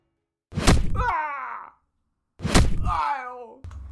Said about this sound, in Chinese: 但是你随便送酒，扰乱军纪，来人，拖下去，打五十军棍。